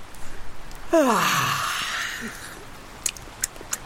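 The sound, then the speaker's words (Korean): A woman gives a single drawn-out yawn with a falling, whiny pitch that is mistaken for crying, fairly loud, fading into a long breathy exhale, followed by a few faint clicks. “헐, 우는 게 아니라 하품하는 거였잖아.”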